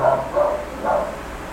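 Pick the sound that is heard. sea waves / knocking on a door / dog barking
dog barking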